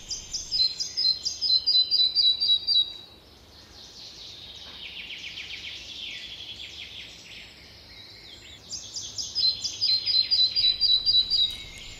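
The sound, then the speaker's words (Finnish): Two bursts of a red-breasted flycatcher's song, each a run of high, evenly spaced repeated notes, separated by softer, continuous bird twittering in the background. “Viikon luontoääni: Pikkusieppo”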